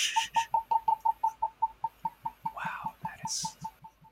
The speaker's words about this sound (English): So I'm twisting off the top. and bottle cap ASMR.